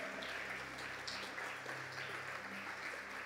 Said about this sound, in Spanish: Junte sus palmas, dele fuerte el aplauso al rey.